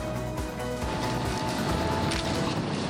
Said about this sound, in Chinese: 现场快门声四起，参考在日本千叶县的一场公路实验，吸引不少媒体目光。